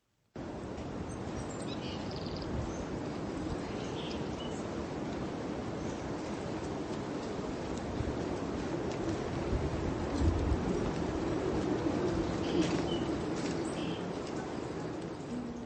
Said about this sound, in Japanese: 泣いてますね。鳥たちもちゃんと生きてるんですよ。